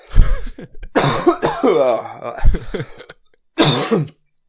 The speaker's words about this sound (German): das ist mein gesundes Husten, das ist.